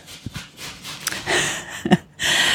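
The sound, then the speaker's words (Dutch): An onion being grated in the test kitchen of Delicious Magazine: dry, rasping scrapes come in a few longer strokes, with short knocks between them, moderately loud. No one speaks. “Op de achtergrond eh, hoort u eh, het gerasp van. Wat is het? Ui?”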